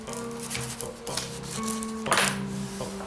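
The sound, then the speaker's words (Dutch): A pen scratches across paper in short, rasping strokes, with a sharper burst near the end, over a steady low electrical hum, heard on an old tape recording made with a poor microphone. No one speaks. “Gewoon uh, geschrijf van een pen.”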